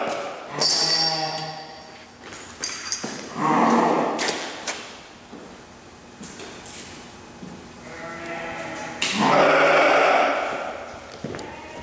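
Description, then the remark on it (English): Sheep bleat loudly, several wavering calls in succession with short pauses between them, the last ones longer and overlapping, with no talking. “we see that the three sheep's pretty big hipped, but then flattens flattens down through her leg.”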